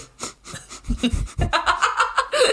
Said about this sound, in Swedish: Oh, lyssnarna älskar när du sniffar i micken.